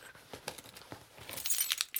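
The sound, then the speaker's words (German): Keys on a key ring jingle and clink in quick, irregular bursts, growing brighter and busier toward the end, with no talking. “Am Ruhr ist ein Schlüsselbund.”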